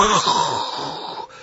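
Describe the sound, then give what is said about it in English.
A person vocally imitates a giant sucking sound: a loud, drawn-out hissing moan that holds steady for about a second before tapering off. “Now you can hear a giant sucking sound that's going to sound like,”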